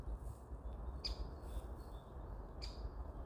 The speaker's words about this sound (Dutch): Horen jullie de vogeltjes?